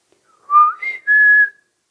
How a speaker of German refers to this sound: Da, schon wieder. Hä? Da, da fliegt was durch den Park, von Baum zu Baum, von Busch zu Busch und pfeift. Jetzt kommt es in unsere Richtung.